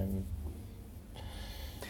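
A person yawns: a short low voiced start that opens into a long, breathy, airy exhale lasting about a second, at moderate loudness with no speech.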